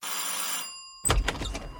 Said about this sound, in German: Schon am Montag klingelte es bei mir an der Tür.